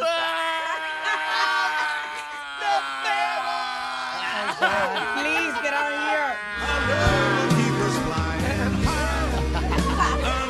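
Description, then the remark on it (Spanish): A woman's voice wails and sobs in long, wavering, high-pitched cries, loud, with low booming music coming in partway through. “Escuchen el llanto de una mujer que sufre.”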